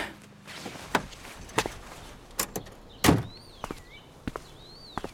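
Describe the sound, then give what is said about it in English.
The unlocked front door of a house is opened with a series of sharp clunks and knocks, one heavier thud in the middle, while birds chirp faintly in the background. No one speaks. “If this place really is untouched, then the front door should still be unlocked.”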